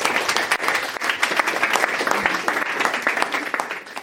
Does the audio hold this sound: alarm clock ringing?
no